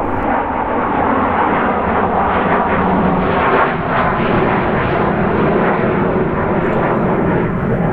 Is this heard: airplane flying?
yes